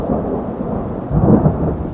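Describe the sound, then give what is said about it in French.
A thunderstorm rumbles with steady rain, and a deep roll of thunder swells partway through before easing back. The sound is dense and continuous, with no voices. “Réponse B, l'albatros, quand il vole en pleine tempête.”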